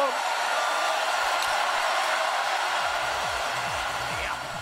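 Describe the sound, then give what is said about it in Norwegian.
A big crowd at a 1997 cross-country skiing championship roars and cheers without pause, a dense, swelling wash of voices filling the whole clip at a steady, loud level before easing slightly at the very end. “Hør det jubelbruset som øker på, øker på.”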